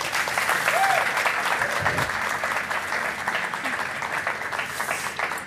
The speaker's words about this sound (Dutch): Mag ik heel groot applaus voor mijn gasten? Ja, dank jullie wel.